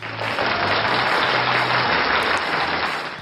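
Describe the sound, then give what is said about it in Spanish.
A burst of crowd applause played as a sound effect, dense steady clapping that fills the whole few seconds at an even loudness before tapering slightly at the end, with no voices over it. “Vale, pues sí, tenía un efecto de aplauso así, chorra.”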